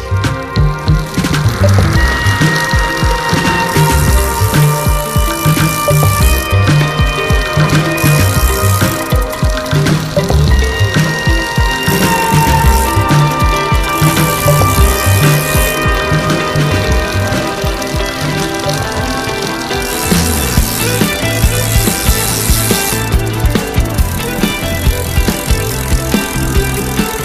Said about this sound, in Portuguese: Agora vamos retirar a bicicleta das tocas com o telemóvel, é uma aplicação, depois é só pôr os pés nos pedais e aí vamos nós.